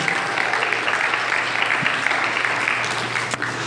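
A church audience applauds the service host after her first time hosting, with a steady, dense round of clapping that holds at an even loudness throughout, many hands blending into a continuous crackling wash.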